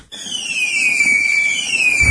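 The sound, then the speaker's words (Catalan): A loud, high whistling firework for the Sant Joan festival screeches steadily for about two seconds, its pitch sliding slowly downward, with a low rumble rising at the very end. No voices are heard. “A Manli seleccionem el millor en pirotècnia, bateries, bengales, trons, coets”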